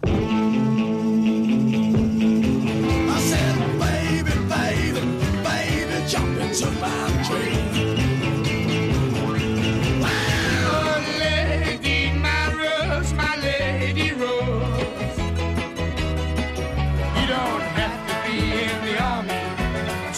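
Loud, full-band rock-pop music plays on its own for about twenty seconds, with driving drums, bass and guitars, like a run of songs stitched together into a medley.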